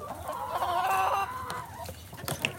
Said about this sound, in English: You go, chickens. You want some guts and head and tail? What's this, chickens?